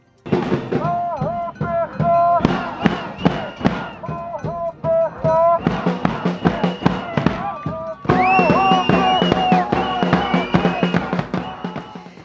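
A crowd of protesters against Prime Minister Netanyahu chants slogans, including "Revolution", and a reworked Hanukkah song in a loud, steady rhythm, with sharp percussive bangs and pops punctuating the chanting throughout.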